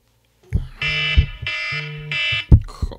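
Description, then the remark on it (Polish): The speaker's phone rings with three loud, buzzy electronic bursts in a steady repeating pattern, separated by short gaps and punctuated by a few dull thumps; no one speaks. “Przepraszam, ale to jest telefon, więc to mi dzwoni”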